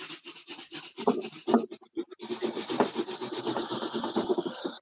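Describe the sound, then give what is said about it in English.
A balloon is rubbed briskly against hair to charge it with static, making a continuous squeaky, scratchy friction sound with quick rhythmic strokes, fairly loud, with a brief pause midway before the rubbing resumes. “So give it another quick rub on your hair.”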